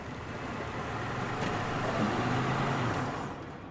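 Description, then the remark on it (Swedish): A car rolls up and idles outside Terminal 3 of Los Angeles International Airport around nine on a Friday morning, 1 November 2013, amid a steady wash of traffic noise, the engine hum swelling slightly midway before easing off at the end. No one speaks. “Omkring klockan nio stannar en bil utanför terminal 3.”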